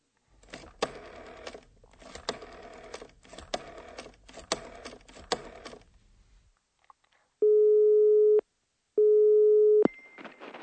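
A rapid series of mechanical clicks, like a number being dialed, then two long, steady telephone ringing tones with a short pause between them, as a woman phones a company to order a repairman. No one speaks.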